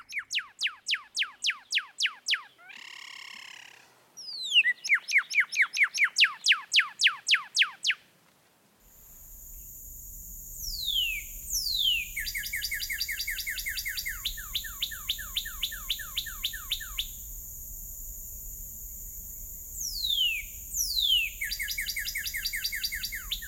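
Rapid, high-pitched bird song with repeated trills and chirps in quick bursts, shifting between two varied song phrases, loud and unaccompanied by any voices.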